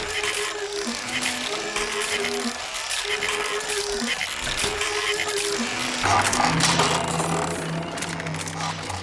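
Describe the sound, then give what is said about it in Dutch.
An Olivetti mechanical calculator is operated for addition, subtraction, multiplication and division, its dense clattering mixed with a whirring motor that cycles through repeated rising and falling tones, growing busier toward the end. “En dat was eh, een Olivetti, eigenlijk een technisch rekenwonder.”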